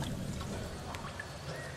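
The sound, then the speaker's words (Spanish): Crystal-clear water falls steadily like a cascade from a fountain in a vast garden, a soft, continuous splashing hiss with a low rumble beneath it and a few faint, brief high tones rising over the flow. “Amaru estaba ante un inmenso jardín con una bella fuente de agua cristalina que caía como cascada.”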